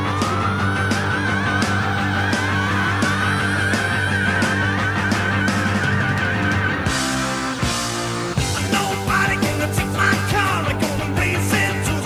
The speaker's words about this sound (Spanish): Puro rock and roll. Escuche la fuerza que tiene esto, gato.